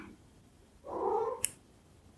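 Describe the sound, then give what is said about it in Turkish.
A single drawn-out cat meow, moderately soft, rising and falling over about half a second, followed by a couple of brief sharp clicks in otherwise quiet surroundings. “Kedi sesi mi?”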